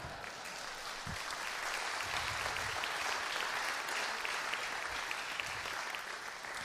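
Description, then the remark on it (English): A large crowd applauds steadily, a dense wash of clapping with cheers and shouts mixed in, loud and sustained throughout without any speaking voice standing out. “I heard the screaming.”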